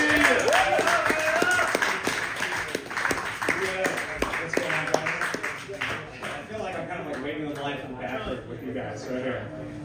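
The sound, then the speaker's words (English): An audience at a stand-up comedy show in a bar cheers and applauds steadily as the next comic is brought up, a dense wash of clapping mixed with whoops and shouting voices that stays loud for several seconds before easing slightly toward the end. “Let's make some noise right now for”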